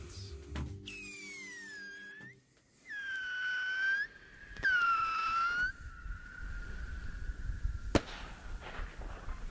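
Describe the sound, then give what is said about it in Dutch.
A Roman candle firework stuck in the ground fires off shooting stars: shrill, wavering whistles with sharp cracking pops between them, with no voices, only faint background crackle. “This is a Roman candle. You stick it in the ground and it shoots stars.”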